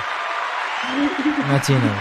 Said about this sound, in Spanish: un aplauso, te ha merecido el aplauso.